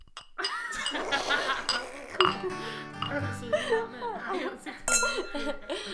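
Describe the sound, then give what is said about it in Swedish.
Glasses clink together in a toast, a bright ringing chime followed by another clink a few seconds later, with voices and light laughter around them. “vi kör skål på det? Ja. ja. Skål. Skål.”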